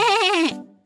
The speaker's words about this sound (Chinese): 就在羊要被吃掉时，他突然听见了咩咩叫的声音，原来那是他自己的叫声，咩咩。